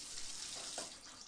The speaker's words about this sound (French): Sous la douche.